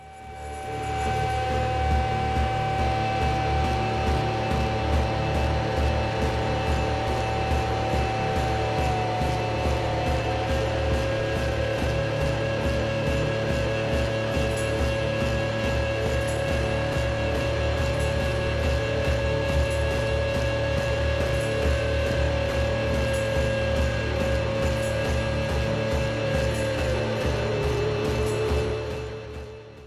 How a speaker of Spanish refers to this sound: Vamos a escuchar el tema que da nombre a este trabajo que se llama ….